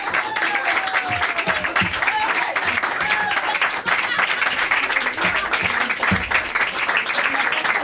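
A radio studio audience in Paris applauds singers who sang Christmas songs, steadily for several seconds, a dense, even wash of many hands clapping, with a few faint whistles or cheering voices rising through it.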